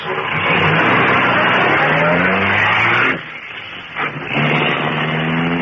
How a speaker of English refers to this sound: Britt Reed pressed a button. The great car roared into life a section of the wall in front raised automatically, then dropped into place as the gleaming black beauty sped into the darkness.